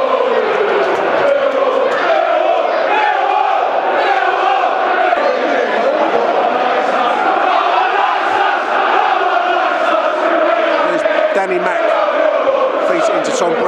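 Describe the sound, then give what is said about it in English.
A huge football stadium crowd roars continuously and loudly after a lucky goal, with chanting and shouting voices blending into a dense, steady wall of cheering throughout. “That's got the crowd fired up.”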